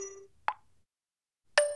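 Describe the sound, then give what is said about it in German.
A short soft pop, then after a brief silence a bright ringing chime, the electronic tones of a phone notification popping up about a cancelled meeting. No one speaks. “Ah, hier ist gerade was aufgeploppt.”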